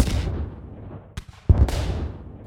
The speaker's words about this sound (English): And on April 26, 1986, during a late night test, when the safety systems were turned off, George dumped some bangers and mash into the reactor, creating a series of catastrophic explosions.